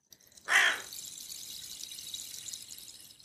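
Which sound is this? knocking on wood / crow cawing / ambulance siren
crow cawing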